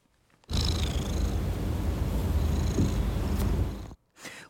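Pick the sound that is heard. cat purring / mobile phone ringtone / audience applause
cat purring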